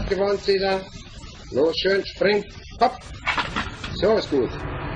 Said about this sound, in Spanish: crió siete cachorros de león.